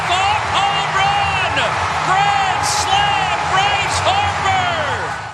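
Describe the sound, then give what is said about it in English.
A baseball stadium crowd roars and cheers loudly and steadily, with many overlapping voices, rising whoops and shouts swelling throughout, after Bryce Harper's grand slam hit deep to right field with the bases loaded and one out. “Listen to that crowd, man.”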